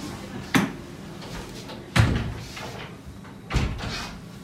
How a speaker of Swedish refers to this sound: Stäng dörren.